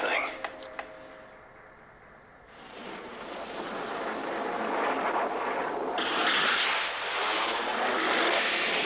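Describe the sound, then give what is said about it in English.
A Norwegian helicopter's roaring engine noise over the Antarctic tundra, chasing a sled dog, builds steadily and holds loud, a dense rushing drone that swells after a quieter start with a few faint clicks. “open on a sled dog fleeing from a Norwegian helicopter across the Antarctic tundra, dodging rifle shots and dropping grenades.”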